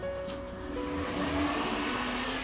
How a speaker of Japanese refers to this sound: めっちゃくる、めっちゃ細い道に車が突っ込んできたんで、今、ええー、みたいな感じでしたけれどもね。